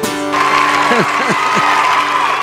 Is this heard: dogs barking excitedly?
no